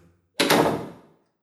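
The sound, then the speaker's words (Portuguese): A locked bathroom door is jerked against its lock, giving a single loud rattling thud that fades out over about a second. No one speaks. “Ai, caramba, a porta está trancada.”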